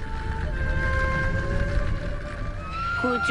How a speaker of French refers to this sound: La mélodie de la mer. C'est ainsi que les Japonais surnomment le sifflement des amas. Une technique ancienne, très efficace pour favoriser l'hyperventilation.